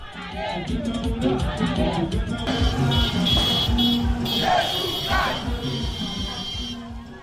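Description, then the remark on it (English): Protesters in Port-au-Prince, Haiti shout, chant and clap in a loud, continuous roar as they march through streets blocked by rocks, trucks and burning tires, with occasional cracks of gunfire scattered through the din and traffic noise underneath. “The occasional crack of gunfire mixed in with the shouting and clapping of protesters as they marched through the streets blocked by rocks, trucks, and burning tires protesters in Port au Prince marched against kidnapping, murder, and rape”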